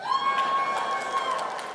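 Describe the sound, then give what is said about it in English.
A game show audience cheers and whoops loudly for under two seconds after a vegan cheese plate is announced as the loser's prize: a steady wash of many voices, with a few higher shouts rising above the crowd noise. “Don't cheer for that.”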